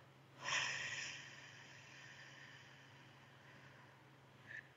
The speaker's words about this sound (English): Let's take a deep breath in through the nose, out through the mouth.